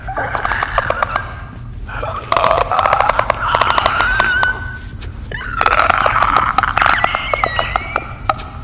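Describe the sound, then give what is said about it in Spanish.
Clicking noises of fungus-infected clicker creatures, which communicate through clicks: rapid, irregular bursts of sharp, loud clicks mixed with strained, warbling throaty rasps, coming in several clustered runs with brief lulls between them. “¿Y, ¿Y, por qué le dicen chasqueadores? Ah, pues más que nada, Dimitri, porque se comunican a través de, de chasquidos.”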